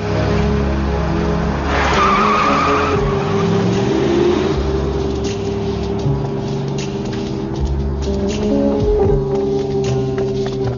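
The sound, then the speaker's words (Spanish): A man drives off in his car after running out of an office; the engine roars as the vehicle speeds off, tires squealing and skidding loudly on the pavement before the engine noise carries on steadily. “Él sale corriendo del despacho, monta en su coche y se marcha.”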